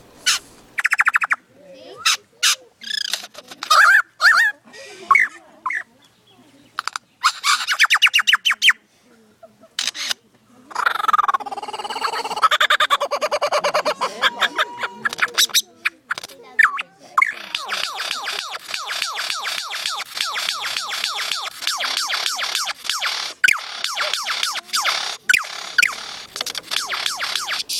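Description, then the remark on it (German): A male bird's courtship display on a small nest mound: a long run of clicks, rattles and mechanical, camera-like snapping notes mixed with harsh squawks, sung loud, continuous and busy, with no talking. “So, wenn sie ein Nest bauen, dann ist das so ein kleiner Hügel, auf dem dann eben das Männchen balzt.”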